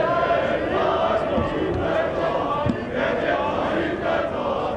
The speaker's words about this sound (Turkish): Bu sene 29 Ekim'de de siviller avludaydı. Mozeleye çelenk bırakılmasının ardından Cumhurbaşkanı görünür görünmez alkışlar başladı. Sonrasında reis sloganları.